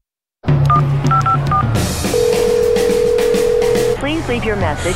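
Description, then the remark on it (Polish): A short run of phone keypad beeps dials a number, followed by a long steady ringing tone that goes unanswered, and a voice begins speaking at the end. “nie odbierasz? Okej.”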